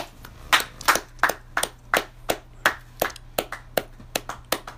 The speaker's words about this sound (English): Sasha Banks, 2019. Clap it up for her.